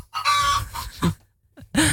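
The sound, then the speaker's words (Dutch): Chickens in a henhouse cluck and squawk in agitated, harmonic bursts, with a brief quiet gap before another loud outburst. The calls are clear, with no one talking. “Oh, oh, oh, daar gaat de kippenhok hoor ik, protesteren.”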